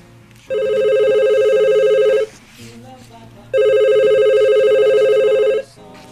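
A telephone rings twice, each ring a steady, buzzy electronic tone lasting about two seconds, separated by a short quiet pause with faint background sound.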